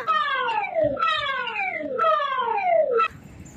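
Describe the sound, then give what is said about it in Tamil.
A loud Singapore public warning siren, sounded yearly on 15 February and 15 September at 6:20 pm, gives three falling wails in quick succession, each dropping from high to low pitch over about a second, before it cuts off abruptly. No one speaks. “சிங்கப்பூரில் ஆண்டுதோறும் பிப்ரவரி ஃபிஃப்டீன் அன்றும் செப்டம்பர் ஃபிஃப்டீன் அன்றும் மாலை ஆறு இருபது மணிக்கு ஒரு பொது எச்சரிக்கை ஒளி ஒழிக்கப்படும் அதை பற்றி உங்களுக்கு தெரியுமா”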